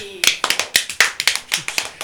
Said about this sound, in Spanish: Dejaron de sacar la cerveza ¿Y se merece aplauso? sí.